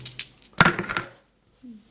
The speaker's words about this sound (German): So, wir würfeln dann einmal mit den zwei Würfeln, um festzustellen, wer von uns zuerst einen Fahrer für die Startaufstellung setzen kann.